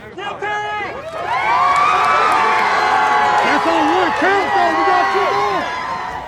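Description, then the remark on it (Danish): A large crowd erupts in loud, sustained cheering and shouting after a guilty verdict on all three charges is announced, many excited voices overlapping and rising together after a brief quieter start, continuous throughout. “Og da den her melding så kom, som du lige læste op, så kom råbene, så kom tårerne, øh, så kom jublen.”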